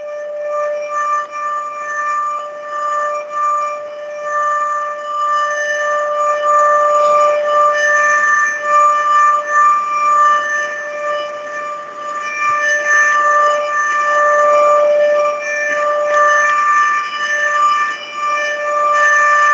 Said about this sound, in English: Has this ever happened before? Trouble with the lunk alarm that you know of?